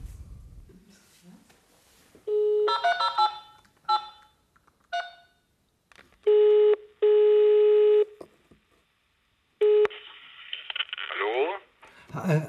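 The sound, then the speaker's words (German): A mobile phone call's ringing tone sounds loud: several long, steady electronic tone bursts separated by short pauses, preceded by a flurry of shorter beeps. “Könnte ich mal bitte ein Handy haben?”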